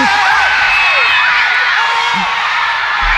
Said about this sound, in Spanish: cuando perdemos los nervios gritamos de diferentes maneras. Por ejemplo, los fans de los …, las fans de los … sonaban así